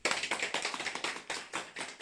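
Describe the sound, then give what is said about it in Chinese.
Audience applause: many hands clapping together in a dense, steady patter that keeps going for about two seconds, moderately loud, with no voices over it. “这也是为国家的贡献，所以此刻可以有掌声。”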